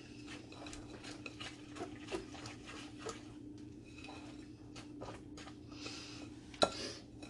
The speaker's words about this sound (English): And I'm just going to have to whisk these together by hand because my standing mixer needs to be cleaned.